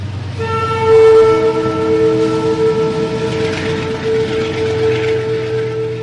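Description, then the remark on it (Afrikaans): A train's horn blares in a long, steady, multi-toned blast over the low rumble of a passing train at Evita se Perron railway station in Darling, South Africa, loud for several seconds, with no voices. “Hier staan ons by die treinspoor waar treine vol drome aankom en treine vol drome vertrek.”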